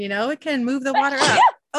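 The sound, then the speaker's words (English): Someone speaks, then a single sharp sneeze bursts out near the end, brief and fairly loud, followed by a short pause before talking resumes. “I just sneezed”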